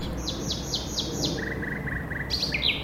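A nightingale sings, with a run of five sharp, repeated whistled notes, then a quick lower trill and a final burst of bright phrases, over a steady background hiss.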